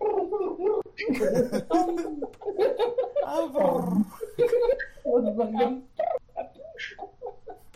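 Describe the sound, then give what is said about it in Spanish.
A voice mimics a pigeon's cooing as a joking 'Buddhist pigeon' sound, with warbling, throaty vocal sounds that rise and fall continuously, fairly loud, with bursts of breathy noise between the coos. “Sonido de paloma budista”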